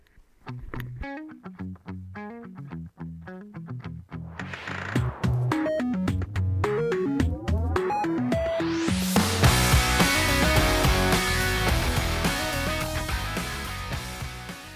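An upbeat pop song plays with no talking, opening on bouncy, sparse notes before a full band with distorted electric guitars crashes in halfway through, staying loud and driving to the end.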